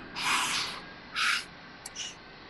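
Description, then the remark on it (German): A voice imitates a sound from the end of a film that resembles a steam engine exhaling: two long, breathy hissing bursts followed by a short click and a softer puff, fairly loud, with no talking. “Weil am Schluss gibt es auch immer wieder diesen, diesen Ton, äh, wie, wenn eine, wie eine Dampfmaschine, ja? so die ausatmet, so.”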